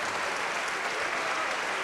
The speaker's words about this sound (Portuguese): Então desocupe as mãos e vamos dar para esta palavra a melhor salva de palmas que você já deu em toda a sua vida.